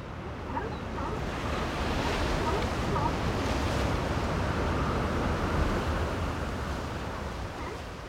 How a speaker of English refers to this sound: We leave you this week on a secluded beach along the central California coast. mesmerizing sounds of the Pacific at Big Sur. If you listen closely, you'll hear some barking sea lions as well.